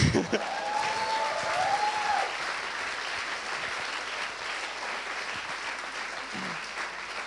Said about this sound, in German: Ja, ihr dürft ruhig lauter klatschen, weil ihr sitzt heute hier.